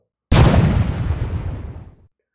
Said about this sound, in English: A huge explosion. The sound alone could have killed a person with a weak heart. It was as if every cannon on earth had fired at once. The cannons leapt back in their clumsy wooden carriages and snapped hard against thick ropes that held them in place